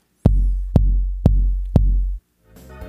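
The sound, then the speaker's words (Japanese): Four evenly spaced bass drum hits, processed with EQ to remove the boomy low end and emphasize the attack, then given light reverb for a more live feel: sharp, punchy attack and a short, slightly roomy reverb tail, loud, followed by a brief burst of brighter music. “どうでしょうなかなか生っぽい感じのアタック感の強調されたバスドラムになったかななんて思うんですけど”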